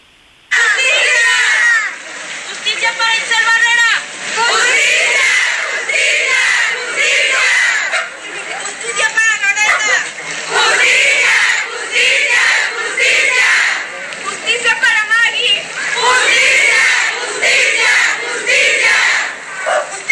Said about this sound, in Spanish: Ellas lo que exigían era justicia contra los feminicidios y escuchamos algunos de los nombres